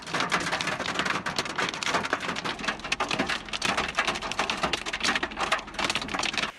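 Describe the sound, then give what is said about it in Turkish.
Heavy rain and hail pound down in a dense, continuous roar, with countless sharp clicking impacts rattling throughout, during an evening hailstorm and downpour in Bozüyük district, Bilecik, Turkey. No voices are heard. “Bilecik'in Bozüyük ilçesinde akşam saatlerinde etkili olan dolu ve şiddetli sağanak yağış nedeniyle bazı ekili arazilerde ve Kovalıca köyü yollarında hasar oluştu.”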